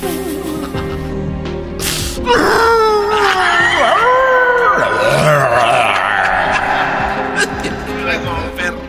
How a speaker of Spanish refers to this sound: En realidad es lo que yo oigo, ustedes oyen una, una muchacha, una mujer llorando así, ay, pobrecito.